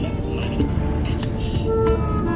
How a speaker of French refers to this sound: Une clim mal réglée.